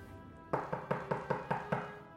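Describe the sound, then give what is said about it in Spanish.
Seven quick, evenly spaced, fairly firm knocks on the wooden door of a small house in the middle of a forest, made by a lost, hungry girl, with a brief hush before the first and no voices. “Por favor, abran. Me he perdido en el bosque y estoy hambrienta.”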